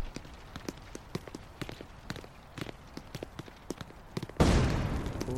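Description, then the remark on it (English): Sharp, evenly spaced footsteps tap along, then a gas canister suddenly bursts with a loud, sustained hissing whoosh that fills the final second. “What was that? Another gas canister.”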